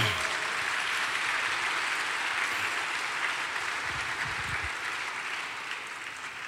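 A church audience applauds steadily for the Lord, a dense wash of many hands clapping together at a fairly loud level, sustained throughout with no talking over it and a slight fade toward the end.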